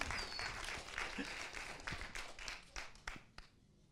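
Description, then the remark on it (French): A small audience claps steadily for a few seconds, the applause thinning out until only a handful of separate, sharp claps remain at the end. “Vous avez le droit de m'applaudir plus fort que ça, je pense que c'était quand même assez brillant.”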